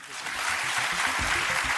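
Audience applause at the Wiener Stadtgespräch in Vienna on 5 September 2019, after a discussion between sociologist Harald Welzer and Peter Huemer: a dense, steady wash of many hands clapping at once, sustained and fairly loud throughout, with no voices standing out.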